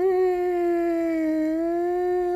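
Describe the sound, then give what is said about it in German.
A single voice holds a long, steady siren-like tone for about two seconds, fairly loud, with a bright, buzzy quality and almost no rise in pitch before cutting off. “Aber irgendwann hat in einem Song einfach keine Melodie mehr Platz, wenn einfach 100 Sachen herumfliegen und dann geht sich halt nur mehr so eine Sirene aus, die einfach nur”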